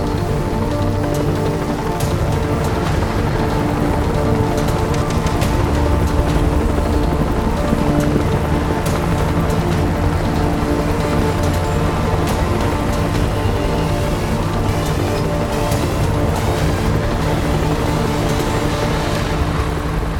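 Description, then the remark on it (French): Dense, steady roar of the turbines of about 15 heavy ornithopters starting up together for takeoff, spreading across the whole base, with sustained high whistling tones layered over a deep rumbling drone, loud and continuous throughout, with no voices. “En avant sur un signe de Fabio, les turbines se mirent en route, et le sifflement de près de 15 orthoptères lourds se répandit sur toute la base.”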